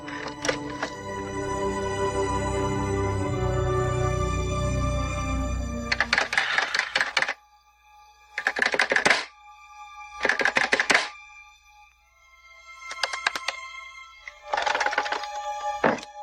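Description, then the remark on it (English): A telephone in a house being dialed on a dead line: several short bursts of rapid mechanical clicking separated by pauses, fairly loud, with no ringing tone in between. A steady hum precedes them. “So of course the phone is dead”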